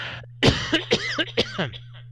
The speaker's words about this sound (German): Ich muss rasch husten.